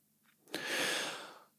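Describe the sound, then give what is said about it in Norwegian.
A single shallow, throaty breath puffs out, starting abruptly and trailing off over about a second, with no talking around it. “Åh, nå snakker jeg bare, nå puster jeg meg fra halsen og opp sånn.”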